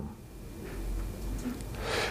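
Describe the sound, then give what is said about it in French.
A slow, deep breath drawn in through the nose while inflating the belly, a soft airy hiss that swells over about two seconds, with no talking. “Donc j'inspire par le nez en gonflant le ventre.”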